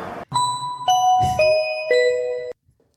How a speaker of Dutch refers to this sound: En dan gaan we de nieuwe rectificatie jingle. Komt-ie.